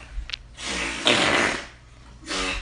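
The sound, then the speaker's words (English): A loud, raspy fart rumbles for about a second, followed by a shorter sputtering one after a brief pause. No talking. “if you can isolate one of the better farts and just put it in there, that'll be good.”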